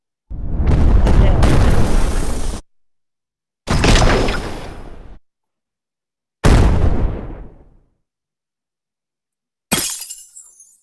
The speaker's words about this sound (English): That's an avalanche of rocks.